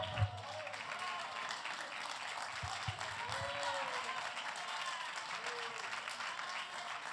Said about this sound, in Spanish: Denle un aplauso al que vive y reina.